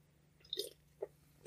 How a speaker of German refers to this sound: Wenn du die ganze Zeit an deiner Cola schlürfst, ja, steck ich sie dir in den Rachen, oder?